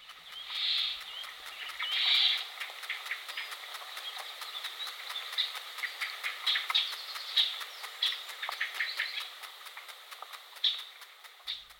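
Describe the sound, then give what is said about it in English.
Sap rising inside a tree, picked up as a dense, steady stream of tiny high-pitched clicks and crackles with occasional louder pops, continuous, with no voices. “What you're hearing is the sound of sap rising in a tree.”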